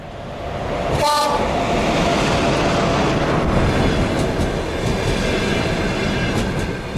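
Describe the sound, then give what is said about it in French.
A train rolls along the rails with a loud, steady rumble and rattle throughout, and a brief horn blast sounds near the start, on a train journey back from Mariupol in the Donbass. “Vous racontez aussi un voyage en train de retour du Donbass, de Mariupol.”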